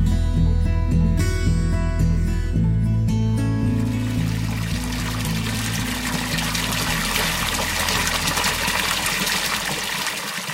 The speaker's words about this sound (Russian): Монах водой наполнил свой кувшин, забормотал над ним слова молитвы и был готов на грозный ада битвы.